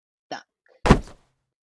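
A loud, blunt thunk of a baseball, a sharp line drive off the next hitter's bat in a Cardinals game, striking a person's head, a single heavy impact, preceded a half-second earlier by a brief, softer tonal blip.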